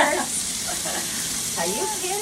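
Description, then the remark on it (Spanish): Cheese-stuffed mushrooms sizzle steadily in a frying pan, a continuous crackling hiss, with faint voices murmuring over the cooking. “Pues sí, es que uno empieza a freír ese hongo y ya se lo quiere tragar todo.”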